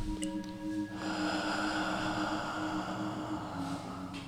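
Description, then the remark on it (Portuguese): A long, steady breath pushed out through the mouth as the last breath of a breathing exercise, a soft airy whoosh lasting a couple of seconds, with no talking. “Expiramos pela boca.”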